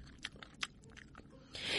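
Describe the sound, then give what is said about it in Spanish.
A series of soft, wet chewing sounds made by a mouth, several irregular smacks and crunches in quick succession, close and quiet, ending in a breathy rush of noise. “El cocodrilo desafiante masticó”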